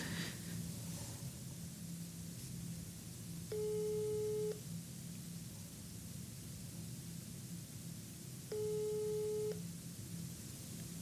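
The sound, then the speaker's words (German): A telephone ringback tone sounds twice, each a steady buzzy one-second tone with a gap of several seconds between, over a constant low hum and hiss, as a call is placed for a telephone interview. The call goes unanswered, and no one speaks. “geht er nicht ran.”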